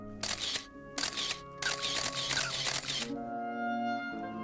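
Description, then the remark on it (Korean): Three bursts of rapid camera shutter clicks, the last one longest, as a photographer photographs a badly wounded girl at a scene of death and violence, ringing out over a steady tonal music bed that continues alone after the clicking stops. “그래가지고 제가 이제 사진을 찍었는데”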